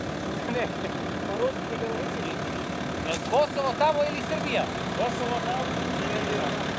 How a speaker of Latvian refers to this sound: Cauršautas zīme pa ceļam atgādina, ka Keifor, jeb Kosovā izvietotie NATO spēki drīkst braukt vēl kilometru un tālāk ir aizliegts, jo sākas Serbija un te nāk pārsteigums. No Serbijas puses ierodas auto.